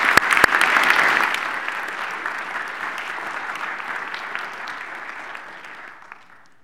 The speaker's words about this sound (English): You clap